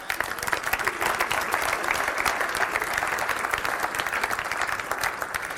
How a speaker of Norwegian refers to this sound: Og du kan godt gi Gud en applaus for akkurat det.